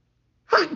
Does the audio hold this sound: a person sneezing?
yes